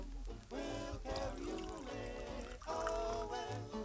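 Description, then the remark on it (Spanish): A small amount of drink is poured into a glass in a steady, gurgling stream, its pitch climbing as the glass fills, with a brief break before a second pour. No one speaks over it. “No, lo que pasa es que se me, me serví muy poquito.”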